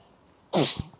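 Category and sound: human body sound, sneeze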